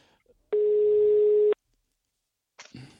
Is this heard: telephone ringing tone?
yes